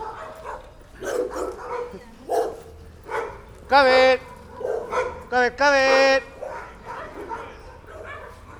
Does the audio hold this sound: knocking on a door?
no